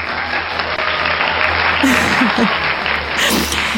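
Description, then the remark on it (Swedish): A short burst of steady, dense applause lasting a few seconds, with a faint voice or laugh briefly rising over the clapping midway. “En liten applåd.”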